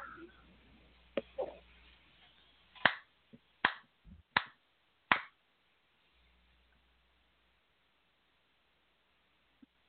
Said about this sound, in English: I'm sorry, you you had a very profound statement right there. I had to applaud it.